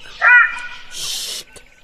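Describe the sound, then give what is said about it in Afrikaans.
A loud, brief howl-like yelp, apparently a human voice imitating a jackal that lifts its head, looks high up at the sky and sings loudly after eating, rising then trailing off, followed by a breathy hiss and a faint click. “lig Jakkal sy kop, kyk hoog op in die lug en begin hard te chunk.”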